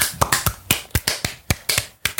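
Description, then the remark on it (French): A few show hosts clap briefly for themselves, about a dozen sharp, crisp claps in a loose, slightly uneven rhythm. Moderately loud, with no talking. “Et ça, je trouve ça suffisamment exceptionnel pour qu'on s'applaudisse.”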